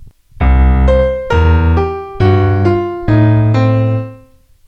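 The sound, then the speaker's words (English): A piano plays a two-handed blues scale lick: a slow, steady descending figure of chords, each left-hand bass note struck together with two right-hand notes that shift halfway through (E with B flat and G, G with G flat and F, A with E flat and C). Loud and ringing, with no talking. “each of our left hand notes is going to have two right hand notes play with it at the same time”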